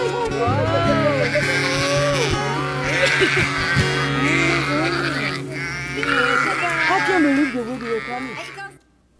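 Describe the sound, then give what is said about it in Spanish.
A flock of sheep bleating, many wavering calls overlapping almost continuously at a fairly loud, steady level, then fading out abruptly at the end. “es un pastor de ovejas de campo.”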